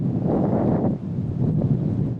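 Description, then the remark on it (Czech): Strong wind roars across the microphone in a steady, buffeting rush on a warm, windy day, dipping briefly about a second in before surging again; no voices are heard. “Nejteplejší den týdne a taky pořádně větrný.”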